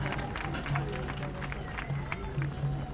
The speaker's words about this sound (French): On peut l'applaudir.